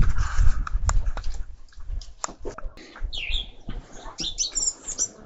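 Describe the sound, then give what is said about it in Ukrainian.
Small birds chirp and twitter outdoors after four in the afternoon on a sunny day with a clear sky, their calls growing busier toward the end, with scattered knocks and rustling in the foreground and no one speaking. “по четвертій годині дня і чуєш, як цвірінькають.”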